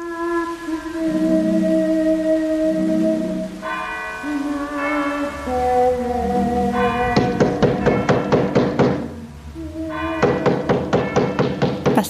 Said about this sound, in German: klopft mit den Mitternachtsschlägen vom Kirchturm um die Wette?